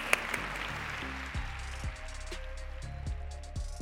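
A crowd applauds with a dense, steady patter of clapping that holds at an even, moderate level for a few seconds, with a low humming tone running underneath.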